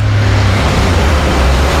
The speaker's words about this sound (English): And the sound of you driving to see them. Of you easing off before a bend and the narrowing in the lane. This is the sound of you respecting the road.